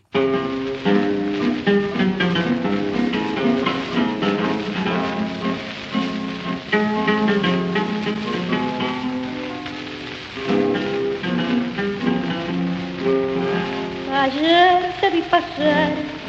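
An old tango recording plays continuously for the whole stretch, with a muffled, narrow sound and a faint crackly hiss like surface noise beneath the steady, full ensemble.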